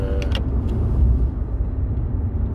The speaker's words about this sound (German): Wir fahren ja schliesslich Auto, es geht um Autos.